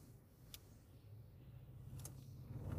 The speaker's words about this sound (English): I know, big truck. It's okay. Big truck. Oh, I know that trucking company. Nice.